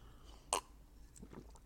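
A quiet sip of water: one sharp wet mouth click, then soft faint swallowing noises, with no talking.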